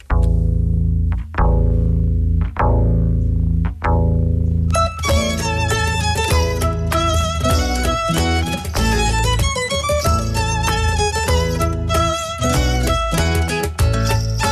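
A Dutch-language pop song with vocals, about asparagus, opens with four heavy, spaced drum-and-bass hits, then the full band bursts in with bright chiming keys and a driving beat, loud and up front.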